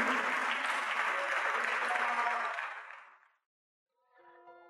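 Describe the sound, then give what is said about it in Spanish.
A church audience claps for Jesus with joy in a dense, steady burst of applause lasting about three seconds, then fades to silence before a voice begins speaking. “Dale un aplauso a Jesús, hermano, con gozo, con alegría.”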